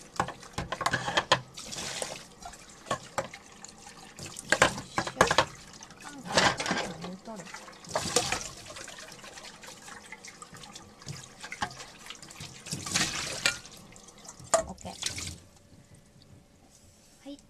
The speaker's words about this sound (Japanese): 例のごとくお鍋を洗うところから